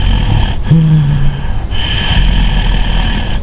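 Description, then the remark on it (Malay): A voice imitates heavy, snorting breaths, a few loud rasping pulls and huffs, with no talking. “Kan pada satu malam tu Mata saya tertutup tapi saya boleh dengar ada dengusan orang bernafas.”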